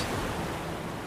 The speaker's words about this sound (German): Und es ist kein Seegang, sind ein paar kleine Wellen. Alles ist in Ordnung, alles ist entspannt.